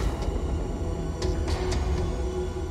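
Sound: commuter train passing by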